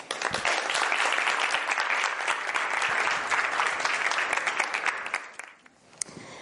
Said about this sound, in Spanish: Un aplauso para ella.